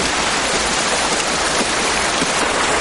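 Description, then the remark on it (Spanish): A dense, steady downpour hisses loudly and evenly throughout, a constant wash of rain noise with no pauses and no voices. “Virgil, cojeando, se dirige hacia el salón con sombrero y una gabardina, andando bajo la fuerte lluvia.”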